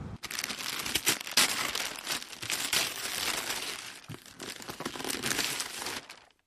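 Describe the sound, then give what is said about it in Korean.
Plastic wrapping crinkles and tears for several seconds, with dense irregular crackles and short rustling bursts, as the plastic wrap of a Montreal smoked sandwich is torn open. No one speaks. “비닐에 쌓인 몬트리얼 스모크드 샌드위치를 뜯자 스모크 향과 겨자 향이 확 풍긴다.”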